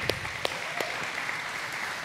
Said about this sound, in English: I didn't even ask them to clap. They've heard so much about you. They're like, these guys are legends.